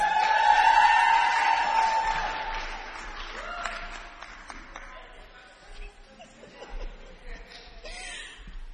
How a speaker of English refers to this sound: So I'd like us to just give a big round of applause as Sister Yvonne comes up to share her testimony with us.